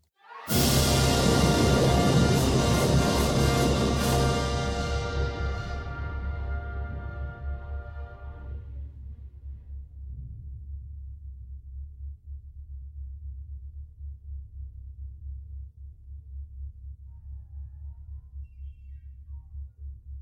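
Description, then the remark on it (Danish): A full orchestra plays the opening of the opera Otello (1887), bursting in with a loud, dramatic crash, then the upper instruments fade away, leaving a deep, sustained low rumble that continues to the end. No voices. “Men øh, lytte lytter, prøve at tænke på, hvordan vi hørte La Traviata lige før, helt pietistisk, inderligt, og så hør orkestrets rolle her, hvor vi har åbningen af Otello.”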